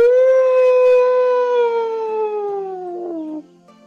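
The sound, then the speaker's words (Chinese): A single long, loud howl imitating a wolf, voiced in a told story for the character Moka howling at the golden moon with all his strength, a steady mid-pitched tone with rich harmonics that slowly slides downward over about three seconds before breaking off. “莫卡抬起头看着金色的月亮，使出浑身的力气，就像狼一样。放声嚎叫起来，嗷！”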